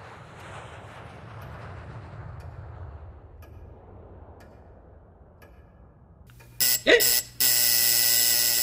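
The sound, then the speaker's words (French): After a stretch of quiet room hiss, a loud, harsh buzzer suddenly blares, first in a short burst, then a brief gap, then a sustained rasping ring until the end. “Le buzzer cria sa colère dans le silence de la pièce, traversant le corps de Runta telle une décharge électrique rayonnant dans l'air.”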